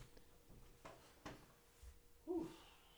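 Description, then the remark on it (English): A door is unlocked and opened indoors: a couple of sharp mechanical clicks from the lock, then a brief scraping creak as it swings. Fairly quiet, with no talking. “Dude, let me open the door. you have to unlock it, guys.”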